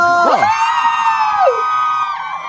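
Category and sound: crowd, audience screaming and cheering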